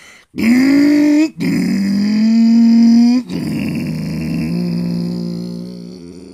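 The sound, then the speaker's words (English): A voice imitates a guitar mimicking a revving engine: three loud, growling vocal revs with rising pitch, the last one long and sustained before slowly fading. “You know the guitar thing at the beginning of … where it sounds like a revving engine?”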